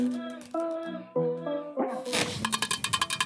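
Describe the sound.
A voice makes drawn-out vocal sounds, then a quick run of about ten light, evenly spaced ASMR-style taps on a tin can, fairly crisp.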